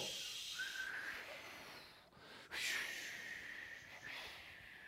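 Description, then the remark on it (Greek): Someone imitates with their mouth the whistle of strong wind getting in through a badly fitted window frame: a breathy, hissing whistle held in two long stretches with a short pause between, and no talking. “και όταν φυσάει πολύ, ενώ δεν έπρεπε να ακούγεται τίποτα, μπαίνει ένα ήχο. Φτάνει στα αυτιά σου. Του αέρα. Σφύριγμα.”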